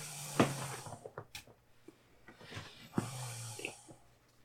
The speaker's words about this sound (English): You're snoring loud.